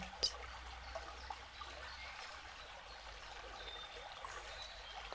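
Water trickles and splashes steadily, a soft continuous babbling like a small stream, fairly quiet and unbroken throughout with no voices.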